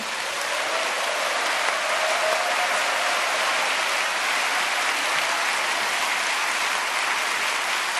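A church audience applauds steadily for about eight seconds to welcome a pastor, a dense, even wash of many hands clapping at a constant loud level with no talking over it.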